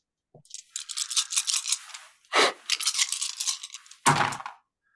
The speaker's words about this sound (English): Uh, well, let's say that the base damage increases up to eight, uh, and then go ahead and roll nine dice.